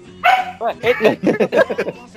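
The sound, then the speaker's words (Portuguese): A human voice imitates a dog barking and yipping, a quick run of short, loud, pitched yelps, with no real dog evident. “o cachorro do goleiro Bruno aí viu uma, loira.”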